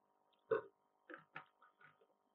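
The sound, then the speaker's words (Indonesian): A loud, short burp after drinking, followed by a few softer throaty gulps or small burps spaced over the next second and a half, with no talking. “aduh gua sampai sendawa”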